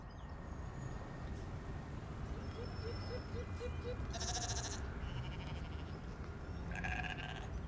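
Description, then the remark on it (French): Sheep bleat twice, a few seconds apart, with loud, wavering cries over a steady low rumble of background noise. “Moutons HD”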